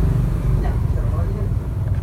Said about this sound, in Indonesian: guys saya motor lewat soalnya outdoor nih